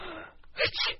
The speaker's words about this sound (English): Gesundheit. You catching cold? I don't think so. One sneeze a cold doesn't make. This dressing room is too drafty.